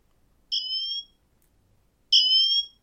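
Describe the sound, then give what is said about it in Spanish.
A smartwatch emergency siren sounds two loud, high-pitched electronic tones, each about half a second long, separated by a pause of roughly a second, with no talking. “Y si damos a sirena, bueno, pues mirar.”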